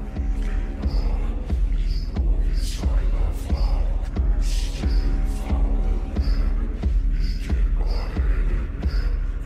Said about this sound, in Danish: Altså simpelthen en sangtekst her om vikingerne og det mørke.